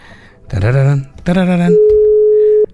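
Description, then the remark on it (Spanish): A steady, unbroken telephone tone sounds clearly for about a second, just after two short bursts of voice-like sound, as a dropped call is redialed. “A ver, creo que se cortó la llamada. Espérame tantito. A ver, vamos a volverla a marcar.”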